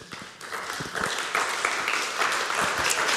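A crowd applauds steadily, a dense wash of many hands clapping that swells slightly and holds at a fairly loud level throughout, with no speech over it.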